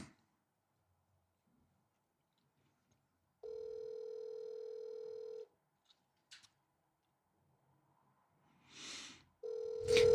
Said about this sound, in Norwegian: Han burde ta telefonen. Hvis ikke blir jeg veldig, veldig skuffa.